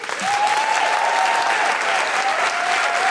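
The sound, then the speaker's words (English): A live audience at The Guilty Feminist show claps for guest Hannah Gousy, a loud, dense wash of many hands that holds at an even level from start to finish, with a faint high tone running through the middle. “Well, big round of applause to Hannah Gousy.”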